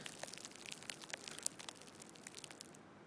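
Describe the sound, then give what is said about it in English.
Fine, dense crackling of a small saran wrap ball being released and slowly unfurling, a steady stream of tiny crisp clicks and pops, imitating the sizzle of a cigarette tip burning up close as someone draws on it. “The burning of a cigarette up close, it actually sounds a lot more authentic if you take a small saran wrap ball and release it.”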